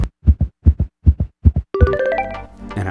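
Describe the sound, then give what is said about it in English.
A steady heartbeat thumps in deep lub-dub pairs, four beats in quick rhythm, before a sustained musical tone swells in and takes over. “Our heartbeat synchronizes with the rhythm of the music we are listening to.”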